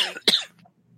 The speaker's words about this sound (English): the coughing's perfect as you are being choked by dust and debris in the air.